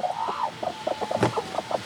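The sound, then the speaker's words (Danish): Hens in a henhouse cluck in a rapid string of short, nasal bursts, with one sharper, louder squawk partway through; one of the hens is broody. No one speaks. “Ja, men faktisk er problemet med hende der, det er, at hun er, hun er skruk lige nu. Og det kan man øh, blive som høne, øh, og så ligger man bare og tror, man skal roe øh, et æg ud til en kylling.”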